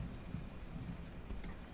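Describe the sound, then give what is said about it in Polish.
Steady rain falling under a cloudy sky, a dense continuous hiss with a deep low rumble underneath; no voices, just the even wash of rainfall throughout. “E, deszcz pada, Niebo jest zachmurzone, ale jednak ta łuna przebija przez chmury”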